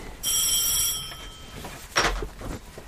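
A telephone rings with a bright, steady electronic tone lasting about a second, followed by a brief clatter and rustle as the handset is picked up. No one speaks.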